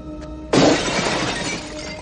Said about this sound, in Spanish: Rompe el cristal de una ventana y comienza a dar patadas a los maderos que hay en ella.